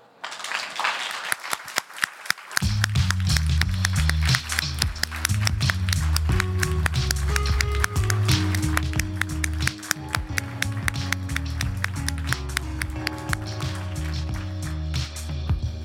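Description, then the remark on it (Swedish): A live audience at the Bokmässan book fair in Göteborg claps steadily and enthusiastically for the whole stretch in a TV-style applause on the host's hand signal, dense crowd applause that soon has bright, rhythmic music coming in underneath and continuing to the end. “Gör vi en sån här tv-applåd så att så länge jag håller uppe handen så applåderar ni och sen kan ni bara sluta när jag håller ner handen.”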